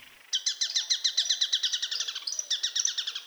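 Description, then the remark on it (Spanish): Song of a rastrojero rabilargo (also called chamicero cundiboyacense), a Colombian bird about 20 cm tall with reddish crown and wings, grey forehead and cheeks and a black throat patch: a fast, steady series of bright, high-pitched chipping notes repeated rhythmically for about three seconds, with a brief hitch midway, no voices present. “El trino del rastrojero rabilargo, también llamado chamicero cundiboyacense, forma parte del Banco de Sonidos de Aves Colombianas”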